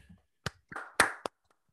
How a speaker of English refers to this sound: Uh, but before we get in there, let's give ourselves a clap, a big old round of applause for having a heck, I'm oh, sorry.